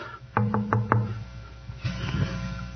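Four quick, evenly spaced knocks on a door, fairly loud, as trustee candidates seeking votes come knocking, followed by a moment of quiet and then some muffled rustling.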